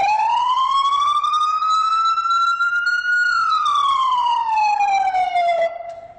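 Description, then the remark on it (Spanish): An emergency vehicle siren in its en-route wail, used while driving on long avenues, one long tone rising slowly and then falling back over several seconds, loud with a bright harmonic edge, with no talking. “Este tono que vas a escuchar a continuación es cuando nosotros estamos en ruta, en avenidas largas.”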